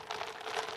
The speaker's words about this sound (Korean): 얼음 소리 들리시죠? 와우.